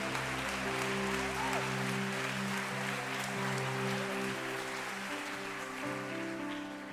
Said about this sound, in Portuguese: Colossenses, vamos aplaudir a Jesus mesmo.